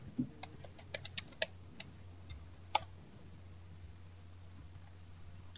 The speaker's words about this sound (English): I can try typing it in here uh, because uh,